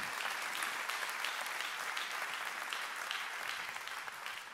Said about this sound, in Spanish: Gloria a Dios, dele un aplauso al Señor por eso.